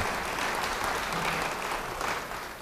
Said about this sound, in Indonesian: amin beri tepuk tangan bagi dia Beri tepuk tangan yang baik bagi dia.